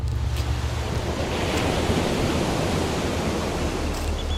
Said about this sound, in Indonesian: Jalan semakin menanjak dan aku mendengar debur ombak yang pecah.